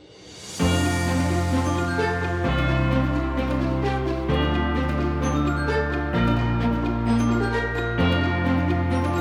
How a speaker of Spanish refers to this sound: Pero antes de esto, te dejo un poquito de música para irte animando y llevarte a esas campanillas que suenan de la Navidad.